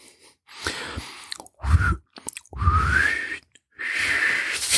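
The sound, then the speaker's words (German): A person whistles loudly and breathily in several short bursts, the pitch rising in a couple of them, with brief pauses between. The whistling is airy, with no talking. “Ein Pfeifen bitte.”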